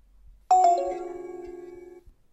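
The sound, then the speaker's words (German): A portable speaker's switch-off chime: a brief higher electronic tone dropping into a lower, steady note that rings for about a second and a half before stopping, with no talking. “Ich mache den Lautsprecher nochmal aus, dann hören wir das Ausschaltsignal.”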